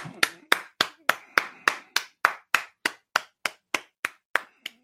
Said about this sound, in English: Everyone just give a round of applause.